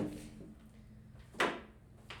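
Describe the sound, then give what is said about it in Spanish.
A door is shut with a sharp, solid thud about midway through, followed by a softer knock a moment later against a low background hum. “Voy a cerrar la puerta para que no se escuche el eco.”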